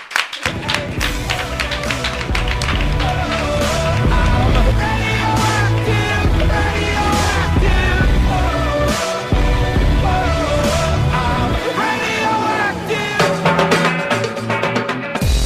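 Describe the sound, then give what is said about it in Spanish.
Loud, continuous applause from a TV show audience bidding farewell to a guest fills the whole clip, dense and unbroken for about fifteen seconds, with other tonal sounds mixed in underneath. “Y que te despedimos con este fortísimo aplauso.”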